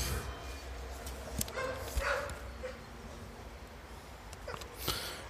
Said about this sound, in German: Ich höre einen Hund. Ich sehe einen Hund.